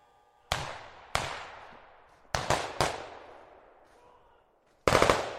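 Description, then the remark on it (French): Sharp bursts of assault rifle fire from about ten armed people crack out in several separated volleys between the towers of La Castellane estate in the northern districts, at 9:30 on 9 February 2015, each tail echoing and decaying, with a final rapid cluster of shots at the end. “Une dizaine de personnes armées de fusils d'assaut ont tiré en rafale dans la cité des quartiers nord.”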